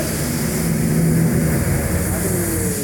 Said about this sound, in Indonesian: sorry sorry ada drag race di sini karena kita bikin bikinnya itu sebelah sebelah ini ya